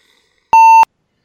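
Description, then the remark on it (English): A single short electronic beep from an old flip phone, a steady pure tone lasting about a third of a second, loud, with clicks at its start and end and silence around it. “Dude, that old flip phone had a voice thing.”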